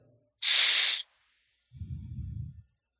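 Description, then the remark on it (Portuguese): A short breath of air exhaled through the nose straight into a microphone: first a bright hissing puff, then a low, rumbling buffet of wind noise, with no talking. “Cara, o seu microfone, ele tá pegando o vento do seu nariz, cara.”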